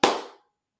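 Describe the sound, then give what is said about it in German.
A single sharp hand clap, struck once as a sync marker, with a bright crack that rings out briefly and fades within a fraction of a second, followed by silence. “Der, der, der Klatscher muss gut sein.”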